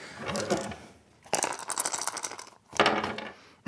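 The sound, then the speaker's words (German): Dice rattle and clatter across a hard table in three quick bursts, a short tumble, then a longer rolling spell, then a final sharp skitter, fairly loud with no talking. “Nicht jammern, würfeln.”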